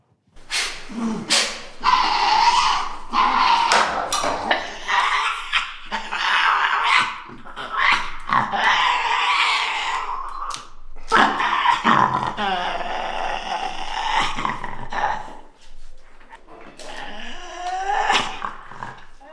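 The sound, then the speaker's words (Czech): Harsh, continuous growling and shrill screeching from a Tasmanian devil, rising into loud rasping screams with brief pauses between bursts, intense throughout with no talking. “Tak je to pravda, tady, to, eh, tady ty zvuky vydává vlastně tasmánský čert, neboli ďábel medvědovitý.”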